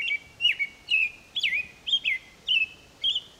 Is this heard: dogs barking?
no